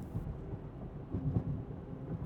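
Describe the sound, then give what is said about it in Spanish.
A low, rolling rumble of distant thunder from an approaching storm, steady and fairly soft, with a slight swell partway through and no voices. “Para cuando él había abandonado su hogar, la tormenta era ya una realidad,”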